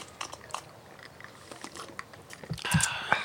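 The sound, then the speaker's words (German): Chewing with wet lip smacks in a garden, a quick run of small clicks and crunches, growing louder and busier toward the end, with no talking. “Ist Schma schmatzi, schmatzi.”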